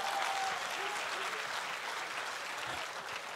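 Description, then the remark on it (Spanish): Men in a church audience applaud for the Lord, a dense wash of many hands clapping at once that holds at an even level for a few seconds without any talking over it. “Si los hombres están aquí, me pueden ayudar ahí dándole un aplauso al Señor, que lo hagan.”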